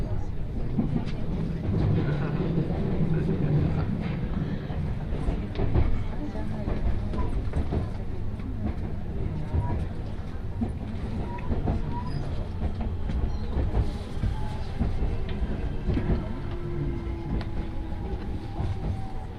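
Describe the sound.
A Tokaido Main Line special rapid (shinkaisoku) commuter train running from Kusatsu to Shin-Osaka, Japan, runs steadily along the rails, heard from inside: a loud, continuous rumble with rhythmic wheel clatter, faint metallic squeals, and indistinct voices murmuring in the background.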